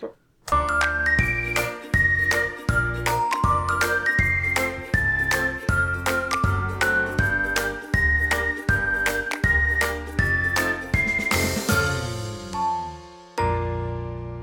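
A reinlender folk dance played by a fiddlers' orchestra, with a steady bouncing beat under a bright, lilting melody, loud and close, ending on a long held chord.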